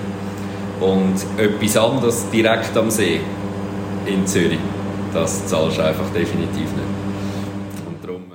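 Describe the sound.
A steady, droning hum from a huge refrigerator for fish, standing in a corner, runs continuously underneath, low and constant, while a man talks over it the whole time.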